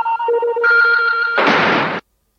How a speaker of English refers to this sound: That sound was synchronized to an animation of the copper coloured top of the battery slamming shut on the black body. So it was quite strong visually, too.